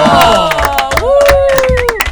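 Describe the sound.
An audience welcomes a band, clapping in a dense, irregular patter while voices cheer and whoop over it, one long shout rising and then holding; loud throughout the short burst.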